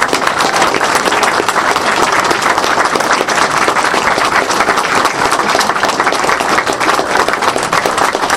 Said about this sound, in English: Anyway, so I, I one last round of applause for all these people because God bless them all. They uh, they made this possible.